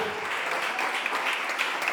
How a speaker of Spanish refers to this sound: Alguien le puede dar palmas, porque esas señales nosotros las llevamos.